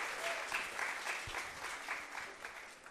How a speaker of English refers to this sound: But would you give her a nice round of applause, please? Lovely.